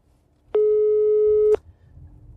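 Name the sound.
phone ringing tone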